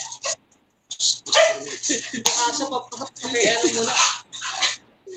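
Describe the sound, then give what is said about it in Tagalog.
A dog barks repeatedly in loud, close bursts, with muffled voices and a low steady hum underneath. “Habang pinapatay nyo pa yung aso, batiin ko lang sa mga to.”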